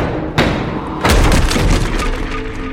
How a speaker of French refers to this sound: Les deux hommes défoncent alors la porte d'entrée.